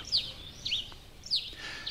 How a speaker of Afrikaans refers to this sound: Die voëls begin opgewonde kwetter totdat Loerie hulle keer